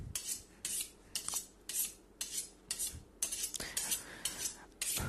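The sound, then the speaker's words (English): A knife being sharpened with quick, rhythmic metallic scraping strokes, about ten swipes in steady succession, fairly loud, with no voices. “talking about sharpening my knife, gonna do it again.”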